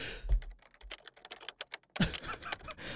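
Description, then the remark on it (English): Rapid, irregular clatter of computer keyboard typing, crisp key clicks with brief pauses and a denser flurry toward the end, no voices. “And by the way, I didn't say that joke just to hit that keyboard button.”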